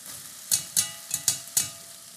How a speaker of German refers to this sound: Das klingt jetzt super, jetzt wo die Tomaten mit Flüssigkeit drinnen sind. Im Topf ist das so ein richtig schönes Brutzeln.